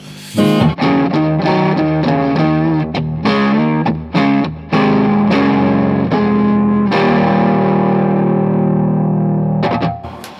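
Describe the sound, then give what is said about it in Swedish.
A distorted electric guitar played through an amp set to high presence and little tone plays a choppy riff of chords and notes, then lets a final chord ring out, bright and crunchy with lots of upper bite, loud with no talking. “Eh, och jag rattar tillbaka till hur det var innan. Hög presence, lite ton.”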